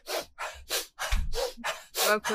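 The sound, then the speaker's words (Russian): A series of about eight quick, sharp breaths drawn in a steady, brisk rhythm as a demonstration of Strelnikova breathing exercises, fairly loud, with no talking in between. “Вот, э, ну, это набор именно дыхательных упражнений, которые совмещается с дыханием и с физикой, когда ты делаешь по 96, вот так”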